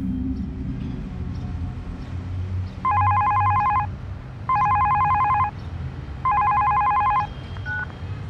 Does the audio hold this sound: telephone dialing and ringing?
yes